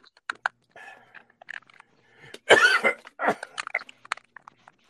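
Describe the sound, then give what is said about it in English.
A loud, harsh cough from a person with a high fever bursts out near the middle, followed by a few rougher throat-clearing hacks, with scattered small clicks and mouth noises before and after. “You, you need no. some um, some cough drops.”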